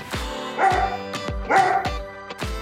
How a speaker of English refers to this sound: And before we go, an interview with Flora wouldn't be complete without her studio companion, Pearl Dog, saying hello.